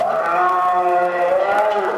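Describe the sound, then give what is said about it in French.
A young goat bleats loudly and continuously in a slaughterhouse as it tries to escape before being forced back onto the conveyor belt, a strained, wavering cry held for about two seconds, with faint clatter underneath. “Un chevreau qui tente de s'enfuir avant d'être remis de force sur le tapis roulant.”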